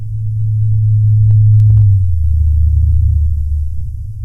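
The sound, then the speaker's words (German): A blue whale call raised four octaves: a loud, steady low hum that drops slightly in pitch partway through, with a few brief clicks near the middle and no voices. “Der tiefe Bass eines Blauwals wird dabei für Menschen erst hörbar, wenn seine Frequenz mit technischen Mitteln um vier Oktaven angehoben wird”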